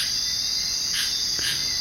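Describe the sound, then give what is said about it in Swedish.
A dense, steady wall of high-pitched insect buzzing and chirring fills a rainforest soundscape, with a couple of brief brighter chirps rising above the constant drone and no voices. “Det jag hör här är ju ljudet av eh, regnskog.”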